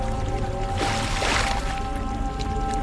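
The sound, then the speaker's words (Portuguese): Elijah's rolled-up cloak slaps down onto the water of the Jordan River, raising a short, rushing splash near the middle, set against a steady low musical drone with no voices. “Aí Elias tirou a sua capa, enrolou-a e bateu com ela na água.”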